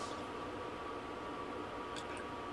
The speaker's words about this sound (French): Là c'est le chauffage qui a pris le dessus. Euh, mais c'est pas encore la fournaise, hein, parce que si je le mets à coin, je vous assure que je peux enlever mon pull.